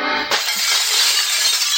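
A plate glass window shatters with a sudden loud crash as a man walks straight through it, followed by a bright spray of breaking glass and tinkling shards that keeps ringing for over a second, with no voices.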